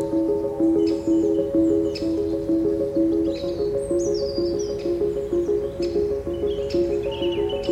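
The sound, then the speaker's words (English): Scattered high bird chirps and short calls from several garden birds (blue tits, great tits, tree creepers, wrens, robins, a greater spotted woodpecker) in woodland at Strumpshaw Fen in winter, sounding over a steady, louder layer of low, repeating tonal notes throughout. “I'm walking through the woodland at Strumpshaw Fen, and I notice many of the garden birds who have survived through the winter. Blue tits, great tits, tree creepers, wrens, and robins.”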